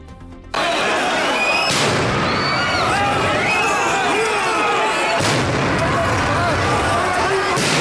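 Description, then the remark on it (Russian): Two sharp, booming stun grenade blasts ring out a few seconds apart over a loud, continuous din of a shouting crowd, as police disperse protesters in Yerevan. “При этом было взорвано несколько светошумовых гранат.”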